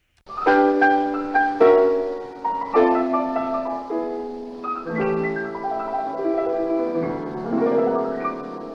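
A 1943 French chanson recording plays, opening with a bright, melodic instrumental passage of sustained, ringing notes that step through a tune at a steady, moderate loudness, with no talking.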